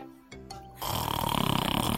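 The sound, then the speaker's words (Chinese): A child snoring while asleep with the mouth open: a loud, rattling, rapidly pulsing rasp begins after a brief quiet moment and continues steadily to the end, with no talking. “呼噜呼噜呼噜呼噜呼噜噜。”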